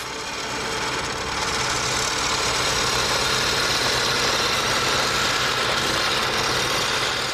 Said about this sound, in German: Schicht für Schicht frisst sich der Bohrer nach oben, dann muss nur noch der Dübel gesetzt werden.